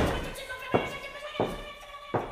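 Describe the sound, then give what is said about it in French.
Three sharp, solid thumps of a toilet door being slammed and bolted, spaced roughly evenly over a couple of seconds against a steady tonal background hum. “Je mets le verrou et je t'enferme dans les WC.”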